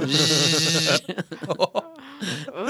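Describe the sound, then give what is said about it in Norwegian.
A voice imitates an electric razor being switched on to shave someone, with a steady, dense buzzing drone held for about a second, followed by chattering talk and laughter. “Sette på den barbermaskinen.”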